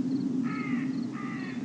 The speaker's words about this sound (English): And there's a crow in the background to kind of make a point of emphasis.